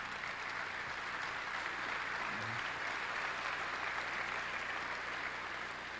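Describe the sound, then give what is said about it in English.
Steady applause from an audience, a dense wash of many hands clapping at an even level for several seconds without a break, with no voices standing out. “Were my children applauding there?”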